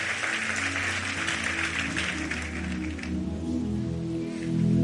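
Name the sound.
audience applauding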